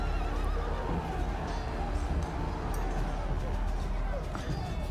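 A horse, Theo's horse, neighs and whinnies amid a steady, dense background of hooves clip-clopping, with the sounds fairly loud and continuous throughout and no clear talking over them.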